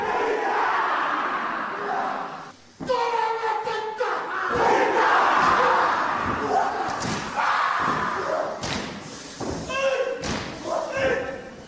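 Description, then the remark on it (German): A group of voices chants a Maori haka in loud, forceful unison, punctuated by sharp shouts, heavy rhythmic stomps of feet on the ground, and hands slapping rhythmically on their bodies. “Heute wird der Hacker auch bei anderen Gelegenheiten getanzt, zum Beispiel bei Hochzeiten, um dem Brautpaar Glück zu wünschen.”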